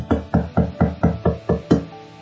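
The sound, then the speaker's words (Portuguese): Seven firm, evenly spaced knocks on a door, fairly loud, rapping in a steady rhythm with a slight ring after the last one. No voices. “Jesus, na verdade, em igrejas como essa, está lá na porta, do lado de fora, batendo,”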